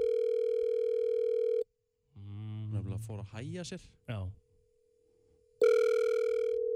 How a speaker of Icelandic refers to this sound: Við farum að ringja núna. Hvort er það að ringja?